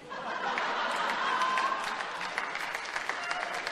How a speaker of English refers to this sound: You're clapping too soon.